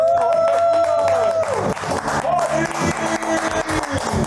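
A steady held musical tone gives way after about a second and a half to a small group clapping, a busy patter of handclaps that keeps going to the end.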